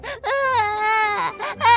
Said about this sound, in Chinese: 孩子的哭声如同暴风雨，同时还传出校长和他妹妹阿米娅小姐严厉制止的声音。